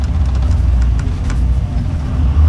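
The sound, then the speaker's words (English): Loud, steady low rumble of an engine and road noise from inside a moving bus, continuous throughout with faint light rattles above it and no voices. “I'm surprised I started from in a bus.”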